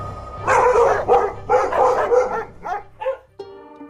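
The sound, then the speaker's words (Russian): Dogs bark and yap loudly in a dense, overlapping flurry, then trail off into a few scattered yips and a short whine at the end. “Собаки утащили ее вместе с пальто.”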